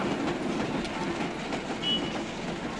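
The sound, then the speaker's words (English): A train travelling from Varanasi, India, to the Nepalese border rumbles steadily along the tracks with a dense, continuous clatter of wheels on rails, fairly loud, with a brief faint metallic squeal partway through. “From there, they took a train to the Nepalese border and the dawn bus to the end of the hippie trail, Kathmandu.”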